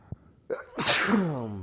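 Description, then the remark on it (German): A single forceful sneeze, put down to drinking alcohol: a quick breathy intake, then an explosive burst with a trailing voiced tail as it fades out. “Gesundheit. Nicht, dass du jetzt auch noch krank wirst, ja.”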